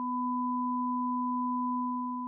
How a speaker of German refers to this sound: Die Idee mischt man einem Pfeifen eine subharmonische hinzu, also einen Ton, der eine oder zwei Oktaven tiefer ist, erscheint das Geräusch erträglicher, eine Art akustische Täuschung.